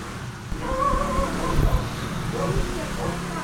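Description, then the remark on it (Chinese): Street ambience on Xinyi Old Street in Tainan, with a steady low rumble of passing scooter engines, indistinct voices mixed in, and a few brief higher tonal calls from barking dogs rising over the continuous, fairly loud bustle. “好，我们现在可以听到非常多声音，有机车，有狗叫声，然后那种实境的感觉。”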